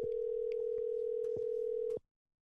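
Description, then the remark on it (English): A steady, unbroken telephone tone hums for about two seconds over faint clicks and line noise as a phone call to a mother is placed, then cuts off abruptly. No one speaks. “Yeah, call, let's call your mama. All right, let's see if we can get her on the phone.”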